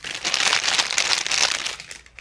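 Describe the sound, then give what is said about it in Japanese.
The gift wrapping of a Tokyo souvenir, a pair of Tokyo Tower socks, is torn open with a steady, busy crinkling and rustling of paper that runs the whole time, bright and crisp, then eases off slightly at the end. No one speaks. “東京土産でもちょっとこうはい開けてみて開けていいのうんいいよ”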